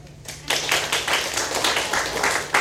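A burst of audience applause starts abruptly and continues as a dense, steady patter of many clapping hands, moderately loud with no voices over it.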